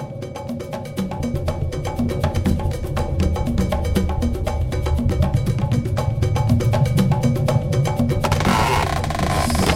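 Cuban music plays steadily, driven by a bright, regular cowbell beat over a low bass groove; near the end a hissy wash of noise joins in. No one speaks.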